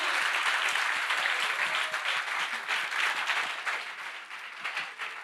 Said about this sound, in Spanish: Y déle un aplauso fuerte al Señor aquí.